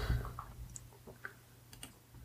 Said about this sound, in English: Let me see if I can find it. Excuse my typing.